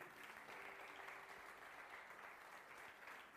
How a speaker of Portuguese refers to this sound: Se você crê, aplauda bem forte a Ele aí.